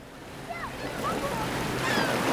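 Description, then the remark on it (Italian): Ocean waves break on a beach with the sun on the horizon, in a steady rushing wash of surf that slowly swells louder, with a few faint high calls drifting over it. “Jennifer stanno passeggiando sulla spiaggia. Il sole è all'orizzonte e Jennifer corre sul bagnasciuga, rincorrendo le onde”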